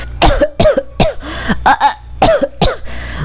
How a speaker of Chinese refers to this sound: 一一直咳嗽，让我没办法好好说话。